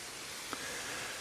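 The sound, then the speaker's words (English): A small waterfall rushes steadily in a soft, continuous hiss of falling water, fairly quiet and unbroken, with one brief faint tap partway through and no voices. “it's the sound of the waterfall uh, as I'm walking a bit closer to it now.”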